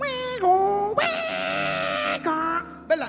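A dial-up modem connecting: wavering, whining tones that dip and slide, then a loud, harsh burst of buzzing static, ending with a brief rising squeal.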